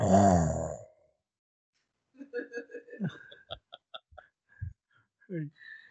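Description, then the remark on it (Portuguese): A voice imitates snoring with a loud, rasping snort, followed after a brief pause by a string of choppy, sputtering vocal noises and little grunts. “Estou buscando roncadores.”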